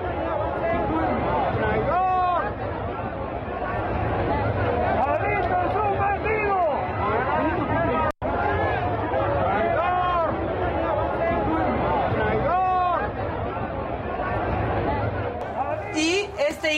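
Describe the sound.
A large crowd at a march shouts and jeers in loud, overlapping voices, a dense, continuous roar close by with a brief cut partway through.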